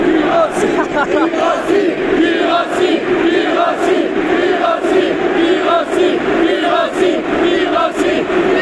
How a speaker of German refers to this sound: Wahnsinn, 5 Meter Sprechchöre. Wahnsinn.